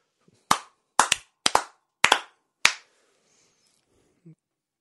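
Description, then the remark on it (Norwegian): A brief, sparse round of hand claps, roughly eight sharp claps in uneven pairs over about two seconds, fading out into near silence with no voices. “Så eh, en liten applaus.”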